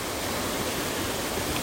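waterfall

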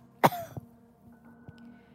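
coughing

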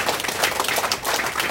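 audience applause

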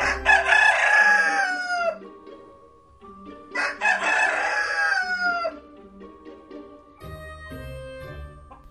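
rooster crowing

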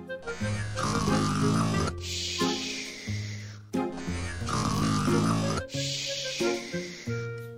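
snoring

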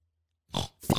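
pig oinking

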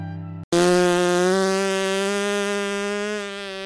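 fart sound

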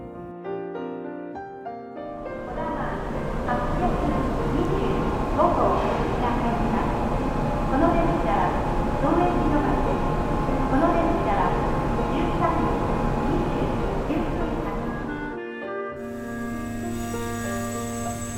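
train running

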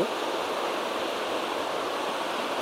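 flowing river water

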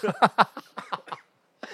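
cough

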